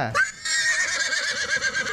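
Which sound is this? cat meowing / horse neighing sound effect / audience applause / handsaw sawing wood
horse neighing sound effect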